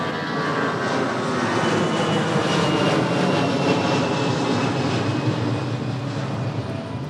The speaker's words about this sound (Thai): เราจะได้ยินเสียงเครื่องบินตลอดเวลา เพราะจริงๆสถานที่แห่งนี้อยู่ใกล้กับสนามบินมากนะครับ